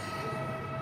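Steady, dense rumble of St Pancras train station, with a train's low mechanical drone filling a brief moment at even loudness. No one speaks.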